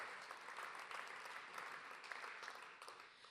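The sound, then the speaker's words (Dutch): An audience claps for a few seconds for musicians who have just played, a dense, steady patter of many hands with no voices, fairly even in loudness throughout. “Jullie hoorden ze net al, graag nog een kort applaus.”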